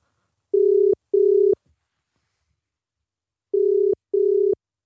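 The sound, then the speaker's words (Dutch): A telephone ringback tone heard through the line after a phone number is dialed: two double-burst rings separated by a pause of about two seconds, steady and clear, with no voices. “Dus toen hebben we, even, toen hebben we even het telefoonnummer ingetoet.”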